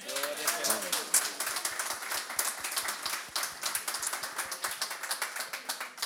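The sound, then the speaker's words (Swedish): An audience bursts into steady applause for a speaker who turned down Manchester United twice, dense rapid clapping that carries on evenly for several seconds, with a brief spoken voice at the very start. “Kan ni inte få en applåd för det?”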